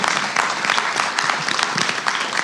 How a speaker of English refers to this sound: Will you guys please give a round of applause to the people who transcribe every episode of Love in Brief? Thank you.